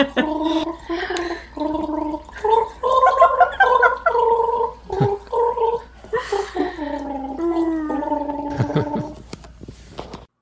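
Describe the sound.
A melody gargled through water as a name-that-tune game example, a string of bubbly, warbling notes rising and falling in a clear tune, with short pauses between phrases and no spoken words.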